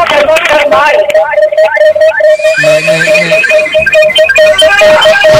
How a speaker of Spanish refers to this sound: Oye, baja el volumen del radio, me escuchas solo por el teléfono.